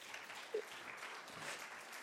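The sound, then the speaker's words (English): A group claps together in a steady, dense wash of applause that carries on evenly for the full two seconds, fairly soft in level, with no voices standing out. “Can we give them a bit of a round of applause?”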